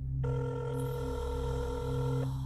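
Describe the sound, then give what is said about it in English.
A telephone rings with a single steady two-second burst, heard as a ringback tone from a roadside payphone calling a home number, over a low background hum, with no voices. “As the phone rang”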